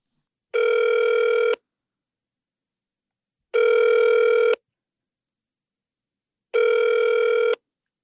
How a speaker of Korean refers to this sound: 네네, 그러면 네네. 전화 연결 한번 해볼까요? 네, 한번 해보시죠.